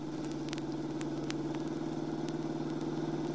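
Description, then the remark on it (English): A car engine drones steadily during a street chase, a low continuous hum held at an even pitch and loudness, with faint scattered clicks and ticks above it. “This car's a newer model than his. I ought to be able to do it.”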